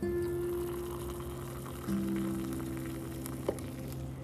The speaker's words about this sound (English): So when you hear that water pour into the cup, that is the sound of heaven.